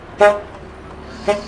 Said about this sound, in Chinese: 有一天，他在美国的纽约街头散步的时候，因为想事情想得太用力、太专心了，哎，结果过马路的时候被按了喇叭。